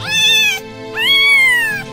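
A cat meows twice, fairly loud, each call drawn out with a rising then falling pitch and a short pause between them. No one speaks.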